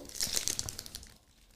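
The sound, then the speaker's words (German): Busy crinkling and crackling of plastic packaging holding three mini plastic containers being pulled and forced open with much force, dense bursts for about a second before trailing off quietly. “Das geht echt nicht so gut auf.”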